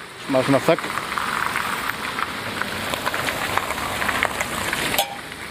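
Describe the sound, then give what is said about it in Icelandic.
A car swishes past on a wet road at an intersection, its steady tire hiss and low engine rumble filling the scene as it turns past; a voice briefly speaks at the start and near the end. “það er samt mjög flott þarna hvernig hann kemur, hérna, hvernig hann kemur og beigir fram hjá okkur”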